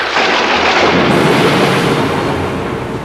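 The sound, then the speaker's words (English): A loud thunder crack from a lightning strike on the electricity supply, bursting across the whole range and rolling on as a sustained roar for a few seconds without fading much. “After a successful demonstration, robot number 5 is subjected to a great overload when the electricity supply is struck by lightning.”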